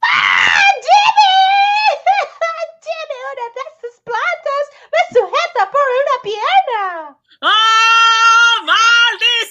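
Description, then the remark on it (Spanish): A woman screams in anguish, loud, a string of strained, wavering cries that breaks off briefly and then returns as a long, sustained wail, as a carnivorous plant grips her foot while she tries to escape. “Pero cuando los dos trataron de escapar, Ruth lanzó un grito de angustia.”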